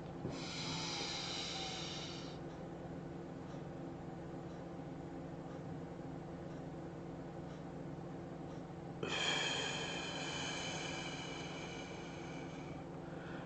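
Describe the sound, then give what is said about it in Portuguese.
Deep, drawn-out breathing during a group breathing exercise, with a strong breath at the start and another surging in near the end over a steady low rumble; no one speaks. “Todo mundo fazendo exercício de respiração da alegria, respirando alegria, enchendo o nosso ser de alegria.”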